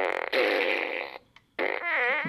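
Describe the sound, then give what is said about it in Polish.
Two loud electronic fart noises from a megaphone-shaped toy fart machine that imitates the sounds when pressed: a long buzzy blast followed after a short pause by a second one with a wobbling, sliding pitch. “Fart machine. I to wygląda tak, że to jest coś, co przypomina megafon i po naciśnięciu imituje takie dźwięki.”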